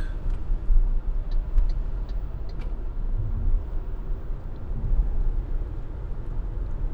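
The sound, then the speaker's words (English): Steady low road rumble and muffled tyre noise fill the cabin of an MG ZS Electric SUV on the move in a queue of nine such cars, with a few faint light ticks above while waiting for a traffic light to turn green, and no one speaking. “We're still in our orderly queue of 9 MG ZS Electrics.”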